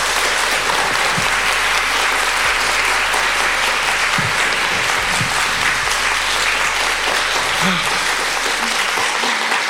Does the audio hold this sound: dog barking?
no